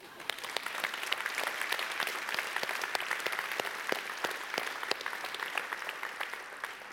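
An audience applauds for about seven seconds, a dense, steady wash of many hands clapping with sharp individual claps popping out, holding at an even level from start to finish.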